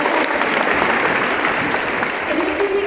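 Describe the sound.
Sustained applause from an audience, a dense steady patter of many hands clapping at once, loud, with a faint voice briefly audible underneath near the end.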